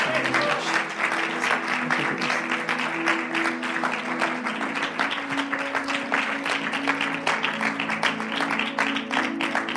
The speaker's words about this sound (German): Äh, vielleicht sollten wir Jesus mal einen Applaus geben. Danke, Jesus.